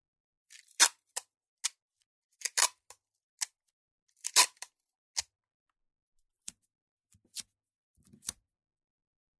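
Short, crisp snips and rips of adhesive tape as three pieces are torn off in quick succession to make a pipe, with irregular pauses between bursts; fairly quiet, no talking.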